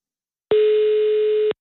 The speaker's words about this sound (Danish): Uh, det er en god ringetone ellers.